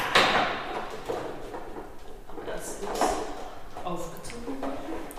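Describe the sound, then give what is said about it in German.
An old spring-driven music box mechanism, wound up by hand, gives off a slight, scraping squeak, with faint creaks and rubbing that recur unevenly over several seconds, and a voice briefly speaks at the start. “Wir hören das leichte Quietschen, was so das Alter dieses Instruments anzeigt.”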